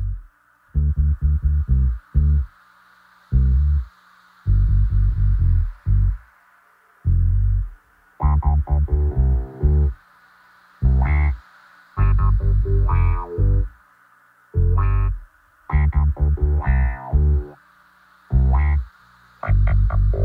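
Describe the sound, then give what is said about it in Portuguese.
A song sung in Portuguese plays loudly in choppy, rhythmic bursts separated by brief gaps, the sound harsh and somewhat distorted throughout. “Vamos escutar … com a música …”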